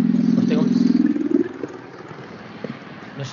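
A chopper motorcycle engine rumbles past in Plaza Ángel de Carvajal with a deep, throbbing low note. It is loud for about a second and a half before fading into quieter street background.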